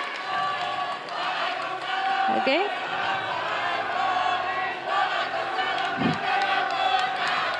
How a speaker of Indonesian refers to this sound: baik berakhir sudah sesi tanya jawab antar calon presiden kita masih akan lanjutkan lagi tapi silakan beri tepuk tangan yang meriah dulu untuk sesi tanya jawab tiga calon presiden ini